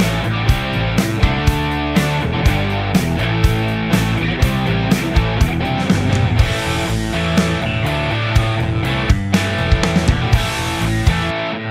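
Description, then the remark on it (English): A loud, crunchy distorted electric guitar plays a chugging riff, thick and sustained, backed by bass and punchy drum hits keeping a steady beat; the bass and drum tracks are muted about halfway through, leaving the guitar tracks alone; no one speaks. “Anyway, here we go with the first guitar tone, and uh, I will mute the bass and the drum track about halfway through so you can hear the uh, the guitar in isolation, the guitar tracks.”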